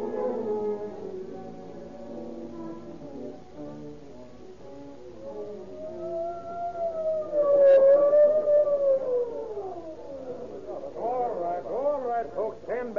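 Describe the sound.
An ambulance siren wails in a slow rising and falling tone, growing louder as it draws near and then easing off, with indistinct voices murmuring underneath.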